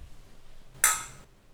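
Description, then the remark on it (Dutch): A single bright clink of glasses touching in a toast, with a short high ringing tone that fades within half a second, otherwise quiet. “Laten we ouderwets gaan eh, klinken.”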